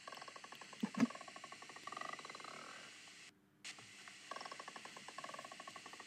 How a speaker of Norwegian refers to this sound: Det kommer fra halsen. Og det er ikke noe følelse jeg får utenom at det bare buldrer litt i halsen. Og den høres sånn her ut.